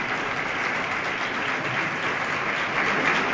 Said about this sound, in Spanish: Se adelanta unos pasos el pregonero para seguir agradeciéndole al público estos aplausos.